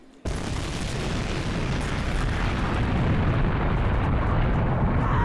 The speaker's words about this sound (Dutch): Op 12 oktober 1654 schrikt het eiland Texel op van een aantal doffe knallen.